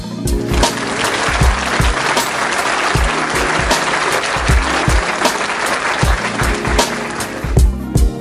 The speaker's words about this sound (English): So, round of applause to yourself and a round of applause to you all. Thank you.